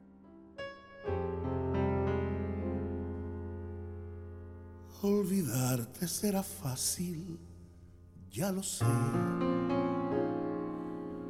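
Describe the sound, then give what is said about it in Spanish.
A recorded song plays with sustained instrumental chords, and a singer's voice enters midway with expressive, melodic phrases over the accompaniment, fairly loud and clear. “Solo disfrútala. Escucha, escucha esta, esta voz, esta letra.”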